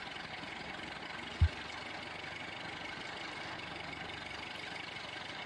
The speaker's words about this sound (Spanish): Es un coche destartalado que se acerca a la verja exterior de la casa y apaga el motor.